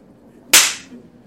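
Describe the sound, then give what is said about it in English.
A single sharp slap with a fake beard, a crisp smack with a brief bristly swish of the beard fibers trailing off afterward, heard alone against quiet background. “Slapping me with the beard would have stung.”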